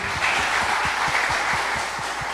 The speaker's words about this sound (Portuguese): Uma salva de palmas